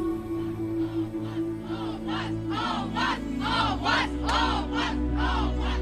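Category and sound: crowd, crowd chanting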